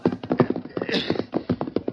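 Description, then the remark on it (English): A mule's hooves clip-clop in a quick, steady rhythm as it is ridden double, a run of sharp knocking steps, fairly loud, with a brief breathy rasp partway through. “No, stable empty, except for one mule.”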